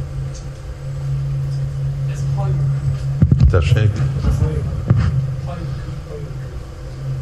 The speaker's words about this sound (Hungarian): Ó, ez a hajó, nem mi.